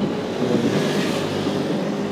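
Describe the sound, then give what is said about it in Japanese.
Loud, continuous street traffic noise in front of a train station, a dense rumbling wash of engines with the buzzing of many mopeds mixed in, steady throughout with no clear voices above it. “めちゃくちゃだなもうなんかタバコ吸いながら原付乗ってる人とかいっぱいいたりして さすが駅前っていう感じですけど”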